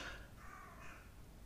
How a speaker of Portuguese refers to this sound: Corvos. A interromper o podcast.